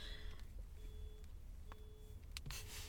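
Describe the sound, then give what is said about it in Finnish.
A burglar alarm beeps outside in a steady on-off pattern, each thin electronic tone lasting about half a second, faint beneath a low background rumble. “No niin, kuuluu tööttämistä. Joku, ää, ei ole tööttäminen, kun siellä meni niin, varashälytykset niin. päälle.”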